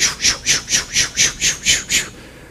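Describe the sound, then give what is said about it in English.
A voice imitates an ultrasound fetal heartbeat with about nine quick, breathy whooshing pulses in a steady, rapid rhythm, fairly loud with nothing else around it. “which you think like has a train entered the room, and the nurse says, "Don't, don't be alarmed. It's it's their heart beating."”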